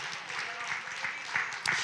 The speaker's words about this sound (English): Claps are getting less and less but I feel the pull from those watching me right now.